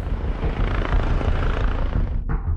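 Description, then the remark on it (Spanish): A police helicopter helping in a search: loud, continuous rotor roar and engine drone, steady throughout, briefly dipping near the end; no one speaks. “Se habilita un helicóptero de la policía para ayudar en la búsqueda.”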